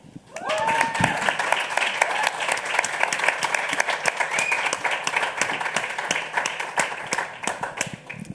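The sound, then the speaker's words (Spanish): A steady round of audience applause welcoming a guest, many hands clapping densely and loudly for several seconds, with a brief whoop or cheer near the start and faint voices mixed in. “me gustaría recibir con un fuerte aplauso a …”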